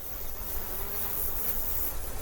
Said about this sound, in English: Bees dance and drum, drum with their wings and their waggling bodies and their their stomping feet and fill the balls of paper called hives with perfume.